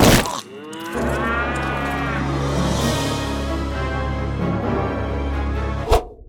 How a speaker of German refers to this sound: meine, meine Lieblingskuh! Verzeih mir, meine Königin, das wollte ich nicht.